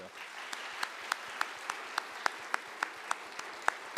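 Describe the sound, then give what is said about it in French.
An audience applauds speaker Pierre Bréchon after his talk, a dense, even wash of clapping with sharper individual claps popping out at a regular beat, fairly soft overall and with no one speaking. “Mais pour l'heure, je vous propose encore d'applaudir Pierre Bréchon pour son apport solide.”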